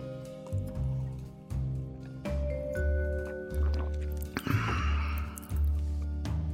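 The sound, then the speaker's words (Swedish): A short, wet slurp of someone sipping a drink, heard over a steady rhythmic background of low, pulsing tones. “tror att man kan behöva få sig en liten klunk.”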